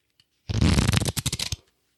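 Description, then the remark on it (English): A deck of cards slides out of its cardboard box: a loud, papery scrape followed by a quick run of soft flicking taps, lasting about a second with no talking. “Let me actually remove it from the box completely”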